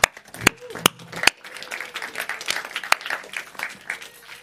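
An audience breaks into applause as a guest is called to the front, a dense patter of many hands clapping at steady strength, with a few sharp louder claps at the start and faint voices underneath.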